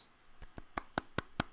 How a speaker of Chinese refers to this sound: 好好空虚哦，一个人拍一拍手，真好空虚哦。